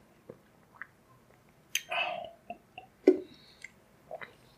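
drinking still water

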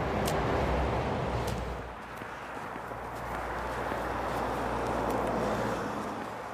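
motorway traffic passing

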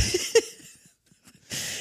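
coughing

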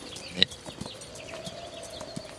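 horse hooves clip-clopping

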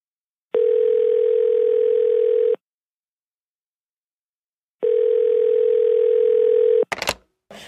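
telephone dial tone

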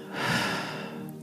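deep inhale through nose

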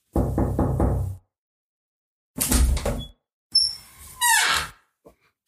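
door being opened

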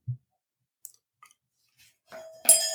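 bell being rung

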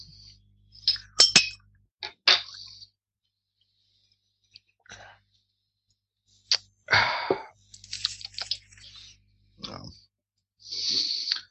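beer bottles clinking

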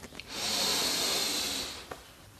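deep inhalation

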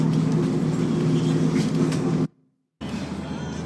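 train interior

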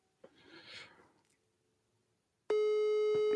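phone call ringing tone

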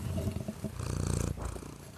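cat purring

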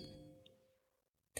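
mobile phone notification ding

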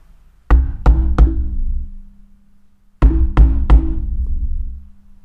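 knocking on a door

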